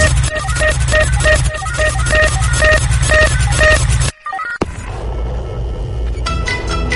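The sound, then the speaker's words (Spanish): An electronic pop cover of a band's song, the group's first single: loud music with a steady pulsing beat and bright repeating synth notes, which cuts out abruptly after about four seconds, followed by a brief gap and a rougher, noisier musical passage. “Y el primer sencillo que publicaron fue eh, esta canción que vamos a escuchar a continuación le aprieto a la ruleta y esto suena así.”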